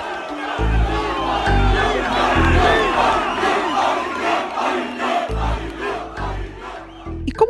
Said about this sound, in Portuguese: Muita gente vinha na frente daquela portaria só para tirar uma foto e gritar mito.